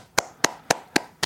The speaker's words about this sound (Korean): 축하해 주세요. 하셨습니다. 와, 박수 한번 주시죠.